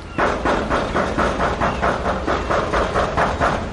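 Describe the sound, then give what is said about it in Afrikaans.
Loud, rapid hammering on a door, a steady run of heavy knocks repeating about three or four times a second without pause, with no voices. “Jy hoef nie so te hamer nie.”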